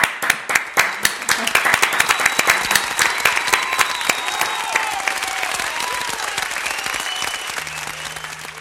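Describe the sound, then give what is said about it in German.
Sustained applause from a group, with many overlapping claps forming a dense, steady patter that stays strong for several seconds, plus faint whistles or cheers rising above it. “Wegen dem klatschen wir in dieser Spezialserie für euch Heldinnen und Helden, die uns im Moment den Alltag retten und geben euch das Wort.”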